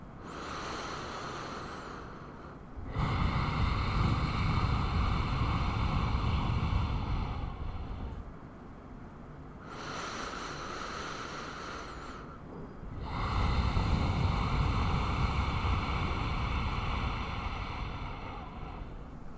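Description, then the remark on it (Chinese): Two long, forceful exhales pushed through a constricted throat as a breathing exercise with attention on the throat, each a loud, rough, hissing rush like a sleeper's breath or a snake, separated by softer drawn-in breaths. No talking. “声音会有一点点像是一个人睡着的时候的那个呼吸的声音，或者有些人会觉得有点像蛇的声音这样子。”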